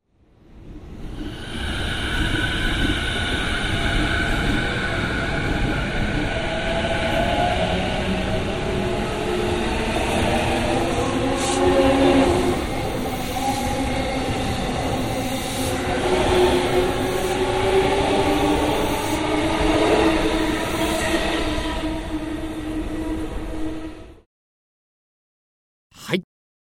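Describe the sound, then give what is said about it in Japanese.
A binaural recording of an electric train passing right in front of the listener for about twenty seconds, a steady loud roar with rattling wheels and high metallic squeals rising and falling, then cuts off abruptly into silence. “電車の通過音をお聞きいただきました。”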